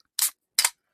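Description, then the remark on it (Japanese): A beer can is cracked open: two short, sharp bursts of bright, hissy noise about half a second apart, fairly loud against silence, with no talking. “あの、あれごですちそうします。缶を開けて。”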